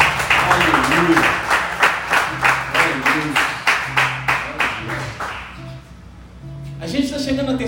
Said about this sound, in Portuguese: E se você crê nisso, você concorda com isso, aplauda Jesus de todo o teu coração.